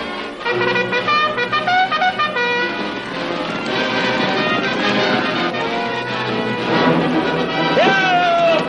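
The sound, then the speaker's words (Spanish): A bugler with soldiers posted behind a hill sounds a bugle call of several sustained, ringing notes, loud, ending with a sliding tone, over a busy background of other sounds. “El corneta obedece.”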